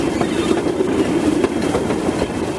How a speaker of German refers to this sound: Ja, und da fährt ein kleiner Zug ab. Lass uns rauf. Der Zug fährt los.